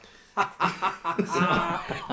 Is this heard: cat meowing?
no